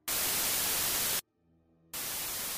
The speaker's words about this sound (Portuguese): Tu escuta o comunicador chiando, Carter?